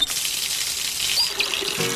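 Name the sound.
water dripping or pouring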